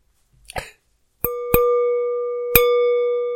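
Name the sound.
glasses clinking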